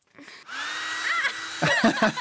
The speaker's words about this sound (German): mit einem Heißföhn auf ein Kaugummi draufhält